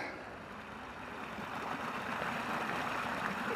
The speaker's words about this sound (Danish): så er vi kommet hen et sted, hvor, hvor vandet det pibler lidt.